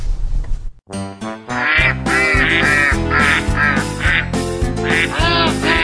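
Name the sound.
ducks quacking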